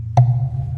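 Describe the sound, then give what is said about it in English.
A single hollow wooden tap on a bamboo perch of a bird feeder fitted with a contact microphone, followed by a low, resonant ringing note that lingers and slowly fades. Fairly loud, with no voices. “And some little bamboo perches sort of”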